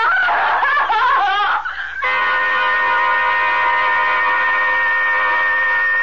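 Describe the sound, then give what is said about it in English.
A woman screams loudly, first in wavering, broken cries, then in one long, steady, piercing shriek that holds for several seconds with no one else speaking. “that scream was the last sound … uttered for a solid month”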